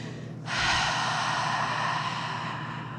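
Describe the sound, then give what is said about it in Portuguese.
A long, deep breath drawn in through the nose while counting four beats, a steady airy hiss that starts abruptly and holds for over two seconds, fairly loud, with no talking. “Então, inspira pelas narinas contando quatro tempos, tá?”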